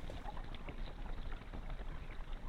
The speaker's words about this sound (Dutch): En verder hoor je helemaal niets, alleen maar het geluid van de golven, het kabbelen van het water.